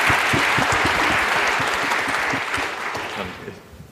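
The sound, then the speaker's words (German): Sustained audience applause, a dense wash of many hands clapping at a steady loud level that gradually thins and fades toward the end. “Applaus.”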